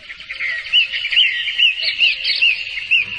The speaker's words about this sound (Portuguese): O senhor Luiz calou-se e ficou observando os pássaros que ciscavam no canteiro próximo enquanto eu pensava.